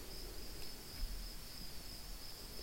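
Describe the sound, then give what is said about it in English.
A steady, high-pitched trill of insects chirping outdoors, continuous and fairly faint, over a soft low background hum with no voices. “which here thankfully have been mostly creature sounds insects, frogs, children.”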